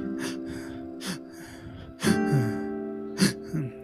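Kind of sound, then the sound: vocal imitation, imitated sobbing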